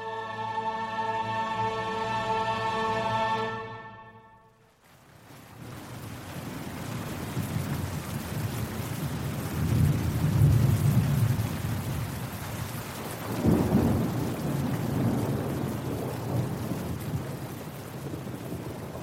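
A brief musical tone fades out, giving way to steady, heavy afternoon rainfall in Madrid that fills the scene, with two deep rolls of thunder rumbling through around the middle.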